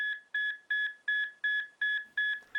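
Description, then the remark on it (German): A repeating electronic alarm beeps steadily, about seven evenly spaced tones with short gaps between them, clear with no voices, like a hospital monitor alarm; an alarm going off in room 214 of a hospital ward at night. “Alles schien ruhig zu sein, bis ein Alarm in Zimmer 214 ertönte.”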